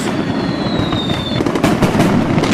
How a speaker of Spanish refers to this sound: Muchachos, de Tultepec, venga. Gasten esa dinamita. de Tultepec, traen sus cohetes, sus, aquí la pirotecnia, fireworks.